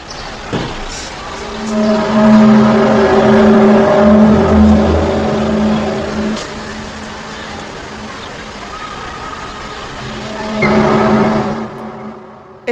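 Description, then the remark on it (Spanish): A mysterious steady, low droning hum heard at night, with layered tones filling the whole recording, swelling louder early on and again near the end, engine-like, with no voices. “o sea, que puede tener una explicación científica, pero que se escucha un zumbido, pues es que me gustaría que lo buscaras y, lo pusieras en el podcast.”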